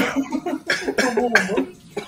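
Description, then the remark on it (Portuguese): A man coughs repeatedly in a rough, breathless fit, several harsh bursts in quick succession with strained gasps between them, fairly loud. “Ele ficou até, até tossiu, até tá? Ficou sem ar.”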